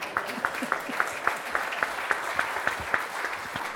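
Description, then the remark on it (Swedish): Audience applause fills the whole stretch, a dense wash of many hands with one steady, prominent clapper keeping a quick, even beat. No one speaks over it. “Nej, men, men, en applåd till”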